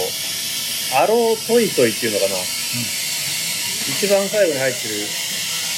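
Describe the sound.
A steady, breathy hiss of steam from an espresso machine runs through the background, constant and moderately loud beneath a person talking in the foreground.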